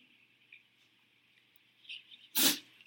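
A single sharp sneeze bursts out near the end after a quiet stretch, with a faint steady high-pitched whine running underneath. Nobody speaks.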